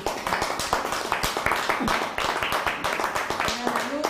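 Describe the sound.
A crowd applauds steadily, many hands clapping in a dense, continuous patter of sharp claps at even loudness, with a few voices and faint tones mixed in.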